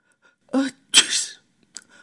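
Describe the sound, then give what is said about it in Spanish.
A single sneeze in two parts: a short voiced intake followed by a loud, breathy burst. It sounds like a voice imitating a sneeze, with faint breaths afterward. “o estornuda, eh, se lanzan, se lanzan al aire multitud de, pequeñísimas, pequeñísimas gotas, eh, son unas gotitas que quedan en suspensión, ¿vale?”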